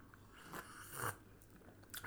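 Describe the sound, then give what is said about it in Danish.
Several people slurping hot coffee and cocoa together, a few short wet sips spaced out over a couple of seconds against a quiet hum, with no talking. “fælles slubron. Der er kaffe og kakao på bordet.”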